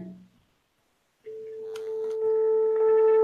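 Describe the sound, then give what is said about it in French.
A landline dial tone, a steady pitched hum at the A above middle C, starts after a short pause and holds unbroken to the end, close and clear, swelling slightly louder. “je prends le téléphone, un téléphone fixe. Je prends la tonalité.”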